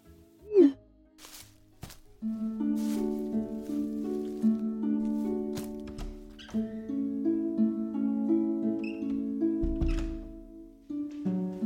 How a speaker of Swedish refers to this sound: Och om ni undrar vad som hörs i bakgrunden så är det hennes hundar.